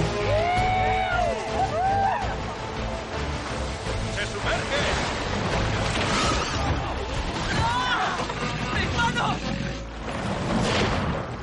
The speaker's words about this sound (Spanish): La ballena coletea haciendo que el agua mueva bruscamente el bote donde estamos seis hombres. ballena y el bote surcan el agua a toda velocidad, unidos por el arpón que arrastra a ella.